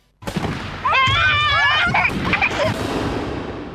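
Fireworks go off in a loud, continuous barrage of crackling bursts and booms, with high whistling tones sweeping up and down partway through.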